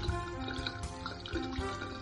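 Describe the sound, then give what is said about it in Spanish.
Water streams steadily from a sink tap opened a little, a continuous splashing rush with a faint tonal ring, running without pause for a couple of seconds and no voices. “Si este pelo se engancha en la rejilla que suele cundir en dichos agujeros, Bastará abrir un poco la canilla para que se pierda de vista.”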